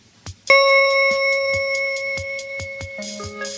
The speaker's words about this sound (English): Don't forget to turn the page every time you hear the chime.